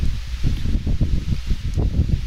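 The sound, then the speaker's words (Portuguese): Paper rustling as a notebook is opened and handled: a steady run of soft, crinkly, muffled scrapes and crackles lasting a couple of seconds, with no voices. “Eu tava só abrindo meu caderno.”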